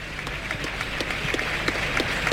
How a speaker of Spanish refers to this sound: y también se lleva una ovación.